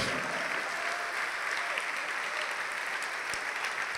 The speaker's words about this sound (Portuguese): Ô oh, glória, vamos aplaudir mais ao Senhor.